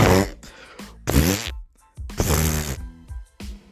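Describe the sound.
A voice imitates a man loudly farting in a university bathroom with a series of four or five wet, buzzing raspberry bursts, forceful, separated by short pauses, with one longer drawn-out blast near the middle.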